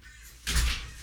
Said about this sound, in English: I'm gonna go over here, I'm gonna open this door, and I swear that bird's gonna be standing right there.